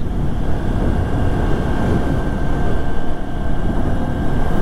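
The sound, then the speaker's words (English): A motorcycle engine drones steadily while riding between Pisgah Forest and Brevard, a loud low rumble mixed with wind buffeting and a faint whining tone, continuous throughout with no speech. “I don't need to fill my motorcycle up, but maybe Tyler needs to fill his up with gas”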